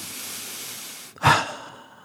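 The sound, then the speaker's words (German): A long, airy inhale taken as a shared breath in, followed by a brief pause and a louder, breathy exhale like a sigh that fades out. No one speaks. “Lass das mal einfach ganz kurz, einfach mal, wir atmen mal ein zusammen.”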